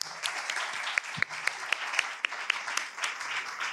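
A crowd applauds steadily, many hands clapping at once in a dense, crackling wash of sharp claps with no pauses, holding a fairly even level throughout.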